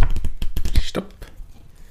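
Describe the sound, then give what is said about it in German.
Quick, crisp rustles and soft slaps of paper as magazine pages are flipped in a rapid series, then the handling trails off into quieter rustling. “wir blättern mal.”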